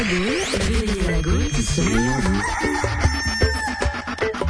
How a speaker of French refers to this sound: le Cocorico nous fait signe qu'il est l'heure de partir dans les salles obscures